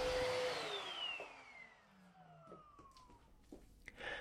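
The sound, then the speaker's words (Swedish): A vacuum cleaner roars loudly, then switches off and winds down, its motor whine sliding lower in pitch over a few seconds, followed by faint clattering and room noise; a 20-year-old man vacuuming a practice apartment at Almåsa on the coast outside Västerhaninge. “den som just har dammsugit heter Oliver”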